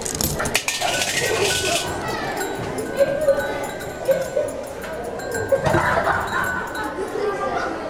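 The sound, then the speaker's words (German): A coin-operated nativity automaton, started by inserting a coin, lights up its figures, which bow, and plays a small tinkling chime, light metallic clinks sounding in an uneven run over a busy bed of murmuring voices and mechanical rustle. “dann leuchten die Figuren mhm, und das ja, ist verneigen sich und es gibt ein kleines Glockenspiel.”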